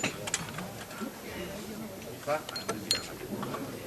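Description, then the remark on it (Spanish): Wooden supports (zancos) of the Señor de la Victoria procession float are pulled out to let the float exit, making scattered creaks and sharp knocking clacks over a few seconds, with a murmur of voices underneath. “de los zancos que se quitan para facilitar la salida del paso del misterio.”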